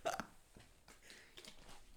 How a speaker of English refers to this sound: Let me take a sip.